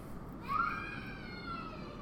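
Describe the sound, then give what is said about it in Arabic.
A young boy, the speaker's nephew, sitting by the door, cries in one long, drawn-out wail that rises at the start and holds steady. It sounds fairly faint, with no talking. “بالمناسبة لو سامعين زول بيب كده ده اسمه شنو هو ده ولد اخوي قاعد هنا جنب جنب الباب يبكي”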